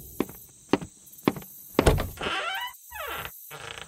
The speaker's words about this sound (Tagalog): Pupungas-pungas pa ako nang bumaba ako ng hagdan para buksan ang pinto.